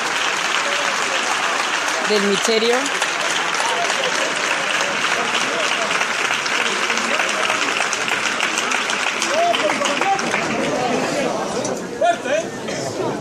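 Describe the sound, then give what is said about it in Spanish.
Sustained applause from a large street crowd on Calle Pureza after a saeta sung from a balcony, during the procession of the Cristo de las Tres Caídas. A dense steady clatter of many hands lasts throughout, with scattered voices and chatter mixed in and a brief spoken phrase underneath. “saeta del balcón del piso número 78 de la calle Pureza, que va a continuar con estos aplausos y la seguía levantada”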